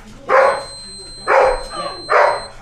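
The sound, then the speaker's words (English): A dog barks three times in a steady, evenly spaced rhythm, each bark loud, with a faint high electrical whine running underneath. “the dog's just been fucking nuts.”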